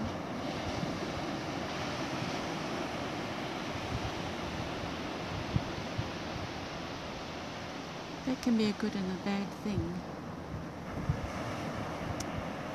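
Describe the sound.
Steady wash of sea waves on the shore, a continuous broad roar with gusty rushes throughout, and a person briefly speaking over it near the end.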